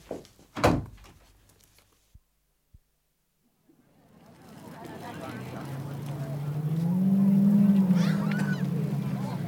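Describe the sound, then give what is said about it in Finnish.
A door shuts with one loud thud near the start, followed by two faint clicks, a brief silence, then a swelling, nasal honking drone that grows louder. “Niin ja pistä se ovi kiinni.”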